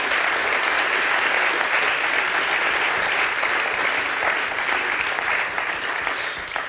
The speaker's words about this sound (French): Donc voilà, je voudrais les remercier. Puis on va les applaudir aussi, vu qu'on a applaudi tout le monde.